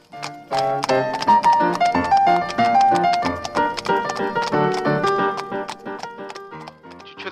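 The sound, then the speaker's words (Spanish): Hooves of horses pulling carriages clip-clop in a steady rhythm as they pass, the clatter sounding over a busy background of piano-like music and people shouting and talking. “Caballos por aquí, eh, carruajes por allá, eh, gente gritando, hablando por todos lados, no lo puedo creer.”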